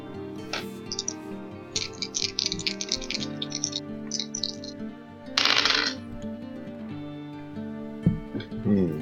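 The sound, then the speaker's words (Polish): Dice clatter and rattle in short bursts, with a louder tumbling roll partway through, over a steady background of music or ambient tones. “Z każdego tych y, zrzutów odpada najniższa wartość, a dwie pozostałe kości się sumują.”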